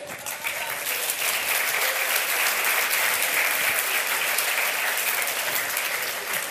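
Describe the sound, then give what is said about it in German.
A large audience claps steadily for several seconds, a dense, sustained wash of applause that stays loud throughout with no voices standing out. “und dafür gehört ihm auf jeden Fall ein Applaus.”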